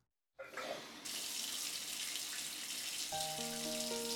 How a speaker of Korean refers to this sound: 젖은 솜처럼 무거운 몸을 이끌고 빨래를 한다. 샤워기에 따뜻한 물이 너무도 반갑다. 물이라면 지긋지긋할 만도 한데 온몸으로 흘러내리는 뜨끈한 물줄기에 하루의 피곤이 씻겨 내려간다.